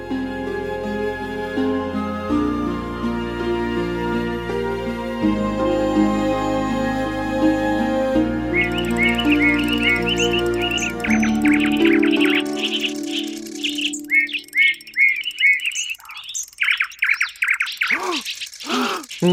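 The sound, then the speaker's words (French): Steady, tinkling music-box-like tones from a mechanical bird play for several seconds, then a nightingale's lively song takes over with rapid chirps, trills and whistles, the two overlapping briefly before the nightingale sings alone. “L'oiseau mécanique ne faisait que dérouler sa partition comme une boîte à musique, tandis que le rossignol improvisait les notes et chantait selon son cœur.”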